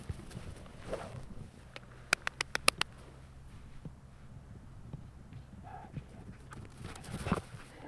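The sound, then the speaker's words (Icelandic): Askur, a five-year-old Border Collie avalanche search dog, runs past in Flateyri, Iceland, with a quick burst of rhythmic, crisp paw falls over a low outdoor rumble, then fainter scuffling steps follow. “Askur, hlupa!”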